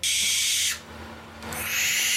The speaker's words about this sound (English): And then there was these these owls that make this screeching oh, noise, yeah. and it's like oh, like this. This is a baby. The owls make this noise right here.